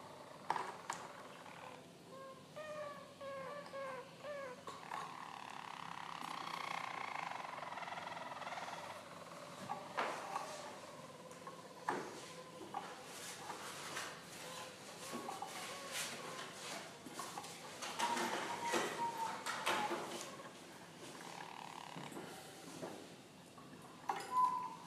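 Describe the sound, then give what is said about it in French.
A group (stam) of Harz roller canaries sing a continuous, soft song, mostly doing the same tours at once: four tours, including the roll (roulée), with rapid rolling trills and warbling phrases shifting in pitch and rhythm, with no talking over it. “face à un stam de Canaris du Harz et un juge-expert en canaris de chant”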